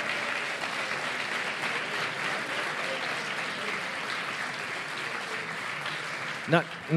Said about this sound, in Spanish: Y el podcast ganador en esta primera categoría de actualidad y sociedad es Carne Cruda. Un fuerte aplauso.